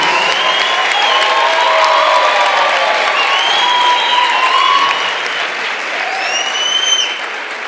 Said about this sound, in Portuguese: Vamos, aplaude, gente, aplaude Jesus, aplaude Jesus a vida dele. Aplaude mais, gente, ele está vindo ainda. Isso. Aleluia. Aí, aplaude, gente, não cansa não.